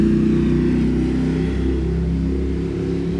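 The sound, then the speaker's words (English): A motorbike engine roars loudly and steadily, its deep throaty rumble revving and shifting pitch slightly as it passes by, with no one speaking over it. “motorbike”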